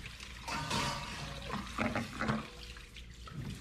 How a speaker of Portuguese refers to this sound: A ouvir ela lavar a louça.